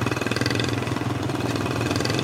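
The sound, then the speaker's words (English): A tuk tuk's small motor scooter engine, pulling a covered cart through the city of Phnom Penh, putters steadily, a rapid, rhythmic chugging that stays constant throughout with no talking. “traveling through the city of Phnom Penh in a covered cart pulled by a motor scooter, a tuk tuk, named for its sound.”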